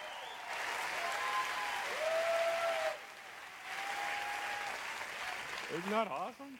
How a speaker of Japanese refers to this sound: もう一度拍手しましょう